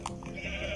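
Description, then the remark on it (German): A single sheep bleats in a video game, a short nasal wavering cry lasting under a second, clear with no talking over it. “ein Schaf und eine Kuh.”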